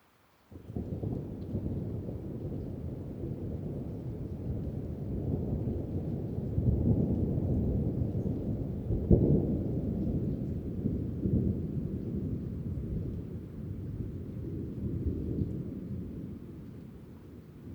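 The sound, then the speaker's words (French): Deep, continuous rolling thunder from an approaching thunderstorm on 8 June 2019 rumbles for the whole stretch, swelling in waves with a sharper crack near the middle, heavy and low, with lightning but no rain and no voices. “Durant plus de 40 minutes, éclairs et grondements se mélangent.”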